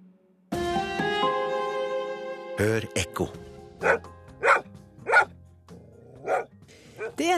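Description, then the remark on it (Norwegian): A dog barks several times in sharp, irregular bursts, fairly loud, over a sustained ringing musical chord that begins just before the barking. “nesten en halv million av dem her i landet. Men det blir stadig vanskeligere å være hund i Norge.”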